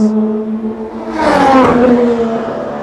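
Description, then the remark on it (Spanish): A race car passes through turn 6 of a racing circuit, where cars drop onto a bump at the inside kerb. Its engine roars with a steady droning pitch, swelling into a loud rush midway as it goes by, then easing off slightly, with no voices. “acá lo que hay que ver, no sé si lo alcanzan a ver, ahora nos vamos a acercar más, los autos es como que caen en un golpe, justo en la cuerda interna de la curva Estamos en la curva 6.”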